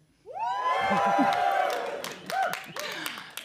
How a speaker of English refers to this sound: Now, to elaborate for those listening at home, we're here in London in front of an audience of people looking to be entertained. So they know that I'm not lying, can I ask everyone in the audience to give a big cheer?